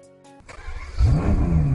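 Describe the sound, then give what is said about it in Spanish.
A sports car engine cranks and catches, then roars up into a loud, rising rev as it accelerates along a track toward 300 km/h, the low growl swelling and climbing in pitch. “Ángel nos pide que nos subamos al coche. ¿Arrancamos? y aceleramos. Vamos cada vez más deprisa por la pista en un vehículo deportivo”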